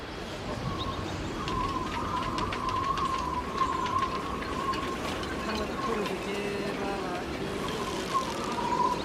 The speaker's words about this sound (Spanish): Fuera de la tienda de pelo se escuchan los silbidos de una marmota tibetana.